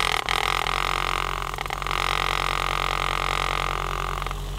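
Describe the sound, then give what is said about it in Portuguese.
A small motor whirs and buzzes steadily for several seconds, a loud mechanical hum of a vortex mixer, laboratory equipment for mixing liquids, with a rattling vibration and a slight change in pitch near the end. “Isto é o som de um vortex, um equipamento para misturar líquidos muito comum em ciência.”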